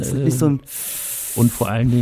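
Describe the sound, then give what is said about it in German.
A voice imitates the hiss of a sleep apnea breathing mask used at night: one steady, airy breath of about three-quarters of a second, set between short bits of hesitant talk from the same speaker. “Das, ich dachte, das hört sich an wie Darth Vader so ein bisschen.”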